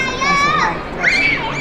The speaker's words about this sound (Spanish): si escuchan gritos de fondo está súper bien, estamos aquí en la feria, de eso se trata.